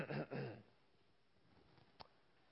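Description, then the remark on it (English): A man imitates clearing his throat with a gruff, rasping burst lasting about half a second, fairly loud, followed by near silence and a faint click. “He said, uh, heard almost someone clear his throat.”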